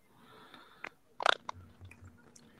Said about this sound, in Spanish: oye, se oye, un ruidito por ahí, como de comiendo, ¿eh? Tenemos un ruidito ahí como de comiendo. Sí, como una pequeña interferencia, ¿no?